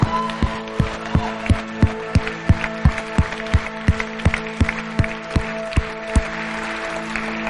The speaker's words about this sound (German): Lass uns den Personen fetten Applaus geben.